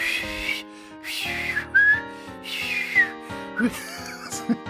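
A person whistles a wavering, melodic tune up close, the pitch sliding and warbling through several short phrases with brief gaps, a breathy, slightly rough tone throughout and no talking.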